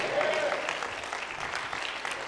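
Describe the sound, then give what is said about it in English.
An audience claps together in a steady, dense wash of applause that holds at an even loudness, with a faint voice or tone briefly audible at the start. “Clap your hand and say yes.”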